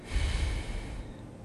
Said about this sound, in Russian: Глубокий вдох и плавный в медленный выдох.